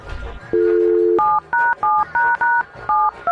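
A phone number is dialed: a steady dial tone gives way to a quick series of about eight short, evenly spaced touch-tone beeps, each a bright two-note chord, loud and with no voices over them.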